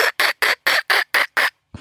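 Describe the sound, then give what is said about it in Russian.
A fieldfare, a kind of thrush, gives a harsh, rattling chatter: seven rapid, evenly spaced, loud scratchy notes, followed by a brief pause and the start of another note. “Причем не просто дрозд, а дрозд-рябинник.”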